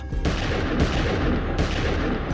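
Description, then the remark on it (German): Loud pistol shots fired in quick succession through a closed apartment door at a police special unit storming the house, eleven shots in all, with sharp blasts at roughly regular intervals over a dense, continuous roar of noise and echo. No one speaks. “Immer wieder drückt Wolfgang P. ab und schießt durch die geschlossene Tür auf alle, die sich ihr nähern.”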